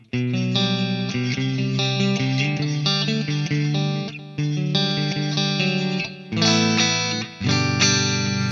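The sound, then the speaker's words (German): Electric guitar modeled on a 1976 Firebird V, played on its neck mini-humbucker pickup, with a warm tone through an effects chain. Sustained chords and melodic lines with light distortion and chorus shimmer, loud and steady with a brief drop near the end. “Okay, ich nehme mal den Hals-Mini-Hamburger.”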